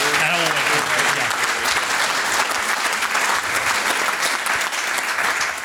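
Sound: audience applause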